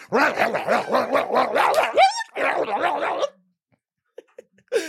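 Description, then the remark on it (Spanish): A voice imitates a snarling dog fight: rapid, loud overlapping barks and growls for about three seconds, then silence broken by a few short yips and a final bark. “Y para ah, terminar, Todos la pelea de perros para terminar.”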